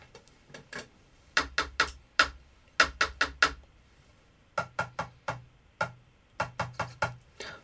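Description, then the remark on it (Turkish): A pen taps out a short rhythm on a hard surface as a rhythm quiz to be repeated, sharp dry clicks grouped in quick bursts with short pauses between, fairly loud, with no talking. “Bunu e, kaleminizle vurabilir misiniz?”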